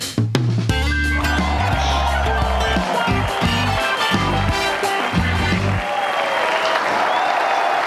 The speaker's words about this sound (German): Und das ist Ihr Applaus.